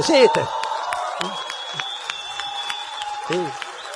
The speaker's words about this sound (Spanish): Usted, ustedes le aplauden porque la conocen ahora.